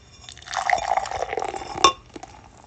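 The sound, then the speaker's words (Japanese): Pacific Style Pils beer pours into a Starbucks mug with a steady, fizzy splashing stream lasting over a second, ending in a sharp clink near the end, then a few faint drips and quiet. “ついでいきましょうか。”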